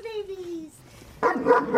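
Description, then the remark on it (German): A young Kangal puppy in Lower Saxony, Germany, gives a long, falling whine-like yelp, then after a short pause lets out a quick run of high yips and small barks, fairly loud. “Bis dahin haben die Kangai-Welpen aber noch fast zwei Jahre Zeit.”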